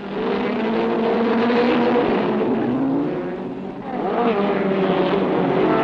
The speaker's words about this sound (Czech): The revs rise as the flag goes up, down, and they're away.